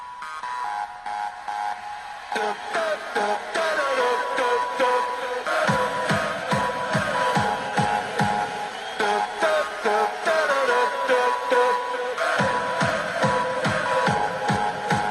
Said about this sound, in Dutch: En ik mocht als supporter vier keer juichen. Met 4-2 tegen NEC, de KNVB-beker. Ja. En als er gejuich wordt bij Excelsior, dan klinkt dat ongeveer zo.